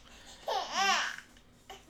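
A small child cries and babbles up close in one high, wavering burst lasting under a second, then a brief, fainter vocal sound follows after a short pause.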